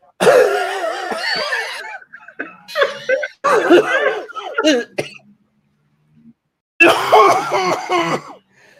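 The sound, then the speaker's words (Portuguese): A man imitates an old man's choking cough after choking on ice: strained, raspy hacking in several loud bursts, a brief pause with faint sounds, then one more long gravelly coughing fit. “Eu comecei a tossir igual um velho, porque eu não queria que ela visse que eu entalei com o gelo”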